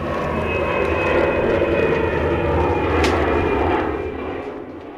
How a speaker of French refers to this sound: dès qu'ils sont détectés, on fait entendre un son, de passage d'avion